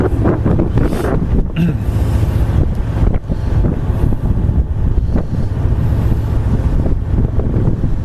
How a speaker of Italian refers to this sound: Sentite che prendiamo il mare di prua che è sempre consigliabile proprio per avere una navigazione il più possibile stabile andiamo al mare di Pru e ascoltate ancora sempre sotto di me lo sciabordio delle onde.